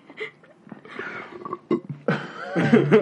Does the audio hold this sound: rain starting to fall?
no